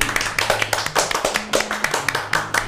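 A short burst of hand clapping, quick sharp claps in a steady rapid rhythm, like a small group applauding for a few seconds to welcome a guest.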